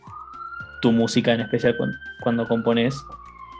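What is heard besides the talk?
ambulance siren wailing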